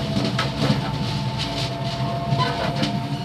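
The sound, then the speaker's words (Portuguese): Steady rumble and rattle of a moving passenger train carriage swaying as it runs, with rhythmic clacking of wheels on rails and a faint metallic whine, heard from inside the carriage with no voices. “Avançamos por entre o balançar do comboio para outra carruagem.”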